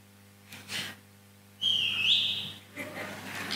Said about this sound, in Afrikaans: fluit soos 'n skaapwagter. Sy fluit en is haar stem.